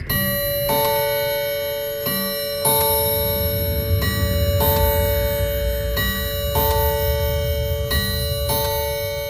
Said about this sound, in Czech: Když za pár chvil opravdu udeřila půlnoc,